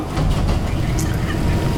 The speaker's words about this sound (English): It's been a very pleasant tram ride.